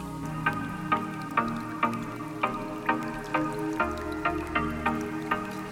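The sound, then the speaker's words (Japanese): Steady drips of water fall at an even, quick pace, each drop crisp, over a soft, continuous tonal wash with a light rain-like hiss. No one speaks. “水の音雨の音いいですよね僕は雨の音も好きだし水の音も好きだし”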